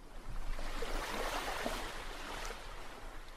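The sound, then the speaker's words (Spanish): A motorboat idles low on the water as it comes to a stop, a steady rumbling hum beneath sloshing, splashing water that stays fairly loud throughout. “Bueno, digamos que ya llegaste con la lancha. Se para la lancha, se oye así.”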